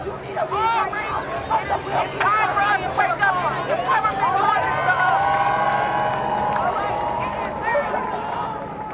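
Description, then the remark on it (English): A large crowd of protest marchers on Interstate 94 at about 10:30 p.m., shutting down the highway, fills the air with overlapping voices, shouts and calls, a dense continuous hubbub that stays loud throughout, with no single voice standing out. “At about 10:30 p.m., the marchers got on the highway.”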